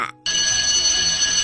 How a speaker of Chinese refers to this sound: 好啦，上课铃声响起